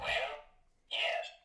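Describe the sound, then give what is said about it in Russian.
A green sound button, pressed to show strong agreement, plays a recorded voice shouting an enthusiastic "yes": two loud exclamations separated by a brief pause, with no other talking. “Одна зеленая звучит так.”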